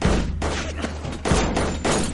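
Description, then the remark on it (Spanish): Several loud gunshots ring out in an uneven sequence, sharp bursts spaced roughly half a second apart, over a dense, rumbling background of action noise, as Brench gets out of a car firing after cars ram Lord's car. “Brench baja disparando.”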